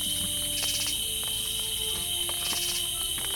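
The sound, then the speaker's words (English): A steady, high-pitched, loud drone of cicadas fills the night air without a break, with faint rhythmic pulsing layered through it and no voices present. “Good night, cicadas.”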